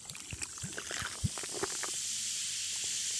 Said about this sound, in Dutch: Eh, ik hoor hem, ik hoor hem sparkelen, zeg maar. Ja, ja, ja, dit is echt sparkels.